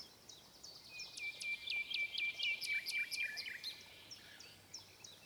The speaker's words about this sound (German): Danke, danke, du himmlischer kleiner Vogel, sagte der Kaiser, ich kenne dich wohl, Du hast die bösen Geister von meinem Bette weggesungen, den Tod von meinem Herzen weggeschafft.